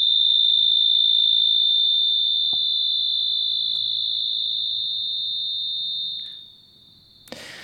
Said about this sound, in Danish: Jeg har ligesom bundet det meget op på, øhm, om de stikker, om de skærer, eller om de har cikade-agtige karakter. Så der er ligesom noget med cikade, transparent karakter, og så øhm, noget, der stikker mere,